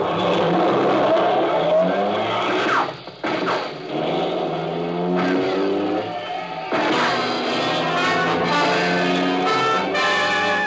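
A car engine revs hard and roars as the vehicle speeds off, reaching 80, the pitch climbing through gear changes with a brief dip midway, loud, with tire noise mixed in.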